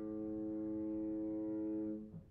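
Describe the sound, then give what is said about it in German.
A ship's foghorn sounds one long, steady, deep blast that holds for about two seconds before cutting off, loud and resonant, with no talking over it. “hört ihr da, man hört auch immer wieder das Nebelhorn.”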